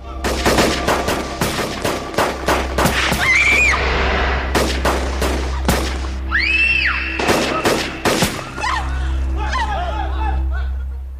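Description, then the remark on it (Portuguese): Rapid bursts of blank gunfire crack out repeatedly over a steady low rumble, with shouting and screams mixed in, during the filming of a telenovela street shootout scene in Leblon, with 500 blank rounds prepared, 400 crew and over 120 cars. “A equipe de efeitos especiais preparou 500 tiros de festim para usar durante a gravação.”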